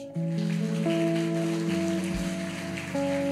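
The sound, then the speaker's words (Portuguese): An audience at a night church service applauds the Lord in a dense, steady wash of clapping for about three seconds, with sustained keyboard or organ chords holding and shifting underneath. “Aplauda ao Senhor nessa noite.”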